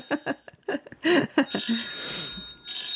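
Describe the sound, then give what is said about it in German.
A woman's mobile phone rings with a bright, electronic ringtone, a quick series of chiming tones that settles into a sustained high ring, clear. “Ihr Handy, Frau Solfrank. Es mhm. hat doch nochmal geklingelt”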